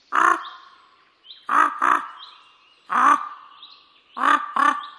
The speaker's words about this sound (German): Es blieb eine Zeit lang ganz still. Dann klang ein rauer, rissiger Krähenruf durch die Luft von hoch oben.